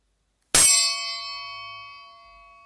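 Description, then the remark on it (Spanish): A single meditation gong is struck once, a bright metallic strike followed by a long, shimmering ring that slowly fades, heard alone in silence. “Continúa respirando hasta que oigas el gong.”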